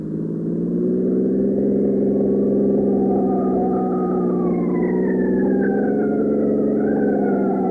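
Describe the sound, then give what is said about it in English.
A police car speeds along on an emergency run to a gas case, turning east and going up York Avenue, its siren wailing in rising and falling sweeps over a steady, heavy engine drone, loud throughout with no voices. “Mikado turned east on the next street to avoid traffic and went up York Avenue to 76”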